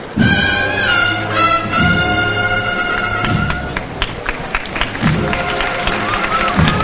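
Sparse, scattered applause from a crowd at a Semana Santa 2015 procession in Jaén as the float of the Santísimo Cristo de la Misericordia is raised, a few thin rounds of claps and taps rather than a full ovation, with steady sustained tones ringing over the first half.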